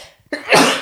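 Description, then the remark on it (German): A single loud sneeze with a short sharp intake followed by a bright, breathy burst that fades over a fraction of a second. “Gesundheit.”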